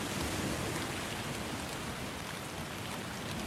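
Steady rain falls continuously late at night, heard from inside a home, a dense even hiss of drops spread across the whole clip, moderately loud, with no voices.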